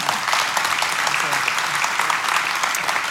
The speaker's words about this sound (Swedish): Tack så mycket. Eh, vi ger dem en applåd